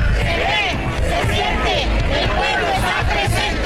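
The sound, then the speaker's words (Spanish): A large crowd of more than 40,000 marchers in Guadalajara, Mexico, at a march for democracy, carrying placards and Mexican flags, chants and shouts in unison, calling "la ley es la ley" and "democracia": a dense roar of many voices with rising and falling rhythmic calls that continues steadily throughout. “Algunas de las consignas era eh, la ley es la ley y el grito de democracia, que bueno, acompañó a lo largo de su recorrido también con pancartas, banderas de México.”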